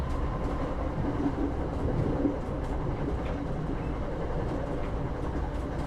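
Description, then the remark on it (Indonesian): A train rumbles steadily along the rails as it nears its destination station, a dense low roar with faint clattering running through it, constant for the whole stretch with no voices. “Sambil menunggu kereta ini berhenti, Mataku melihat-lihat kembali ke kereta yang terasa sedikit aneh ini.”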